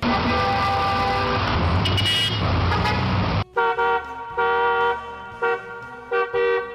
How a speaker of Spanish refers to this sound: No, hombre, esa lo ocasión móvil del Rollis, la chilladera de los frenos de los carros y los pitadera. Ya van dos veces que me espanto y pienso que soy yo.